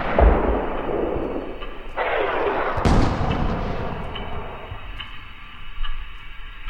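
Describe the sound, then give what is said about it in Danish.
Heavy artillery booms roll in repeatedly, deep rumbling blasts with one sharp crack near the middle, echoing over a constant low rumble. No one speaks. “Men du kan også høre en anden lyd. Lyden er artilleri.”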